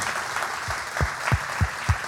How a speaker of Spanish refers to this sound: Así que muchísimas gracias. Un aplauso, por favor